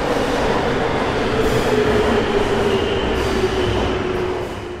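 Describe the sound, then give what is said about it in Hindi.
A metro train rumbles steadily and loudly, with a sustained hum, airy hiss and faint squeal, fading slightly at the very end; no one speaks. “excuse me ये Kashmiri gate के लिए मेट्रो कहाँ से मिलती है”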